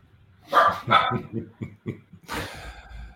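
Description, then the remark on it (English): Several sharp barks from pet dogs indoors ring out in a quick, uneven series, loud, with a burst of higher yapping near the end. “Hang on, dogs. Sorry, guys. I'm just going to throw my dogs out.”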